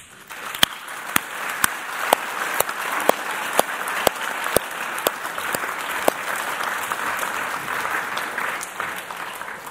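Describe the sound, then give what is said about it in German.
An audience at a church service applauds steadily for about ten seconds, giving applause to God, a dense wash of clapping with sharp individual claps popping out at a regular rhythm throughout, fairly loud and sustained without talk. “Lass uns in diesem Moment nicht diesen dreien, sondern Gott den Applaus geben, dass er ein Gottes der Geschichte schreibt.”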